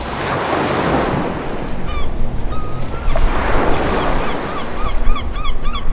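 Ocean waves surge and wash in broad, noisy swells, with a steady windy rush underneath and faint bird calls chirping above toward the end.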